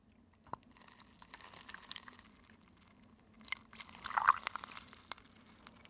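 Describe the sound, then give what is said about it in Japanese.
Irregular crackling and fizzy popping as Antarctic ice melts in lukewarm water and trapped air tens of thousands of years old bursts out, with scattered sharp snaps building toward the end, fairly quiet with no talking. “パチパチパチパチってパチパチパチパチはい聞こえますよねすごく聞こえますねはいこれ南極の氷から出てる空気の音なんですけどもえはい南極の氷にはあの数万年前の空気っていうのが閉じ込められていて、はい、それを溶かすとですね中からおあの空気が出てくるんです。”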